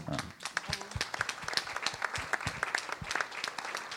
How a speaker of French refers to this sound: Et donc là, je suis à 1488 chansons enregistrées et sorties. Donc, euh, on va fêter la 1500e là, à l'automne prochain. Et ça s'applaudit hein, quand même.